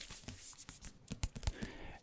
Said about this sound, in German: Ich habe hier ein Buch liegen. Das ist ein Unibuch, was ich dieses Semester benötige. Ich tue da mal meinen Stift raus. Das ist dieses Buch hier.